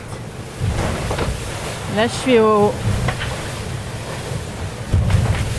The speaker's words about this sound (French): Il y a 30 et 42 nœuds de vent de nord-ouest.